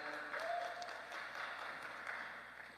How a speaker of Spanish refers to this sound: Vamos a darle un fuerte aplauso a todos ustedes que están aquí tempranito, a las ocho y media de la mañana.